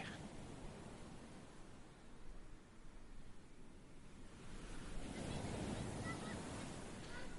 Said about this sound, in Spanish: como se escuchan ya esas olas agradables de esta maravillosa ciudad. Escuchen, escuchen.